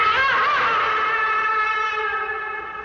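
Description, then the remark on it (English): A voice imitates a coyote howl, a single sustained, loud, wavering tone that starts with a quick rise and then holds steady for nearly three seconds. “during that opening scene you have the coyote who's kind of like doing that”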